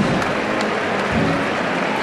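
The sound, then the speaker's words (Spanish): A crowd applauds steadily during a procession on Calle Sierpes, a dense, even wash of many hands clapping at once that holds the same level throughout without pause or build. “Y se vuelve a aplaudir.”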